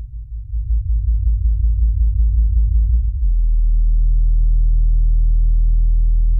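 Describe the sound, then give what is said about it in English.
A sped-up blue whale song: deep, rumbling pulses repeat rapidly for a few seconds, then give way to a loud, steady low moan that drones on with no voices. “It's the song, if song is the right word, of the blue whale, the recording's been speeded up, as in fact, the vocalizations of the blue whale are so deep, they are at such a low frequency, they're actually almost completely inaudible to the human ear”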